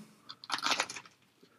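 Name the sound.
crunchy food being chewed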